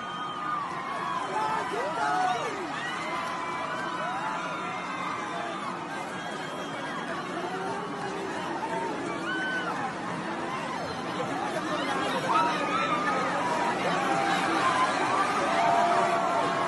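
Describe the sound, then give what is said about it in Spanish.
A large stadium crowd roars in an ovation, a dense, continuous wash of overlapping voices, shouting and cheering at a fairly steady level throughout, with the swell rising slightly toward the end. “Era como la gente le grita, mira, el estadio entero.”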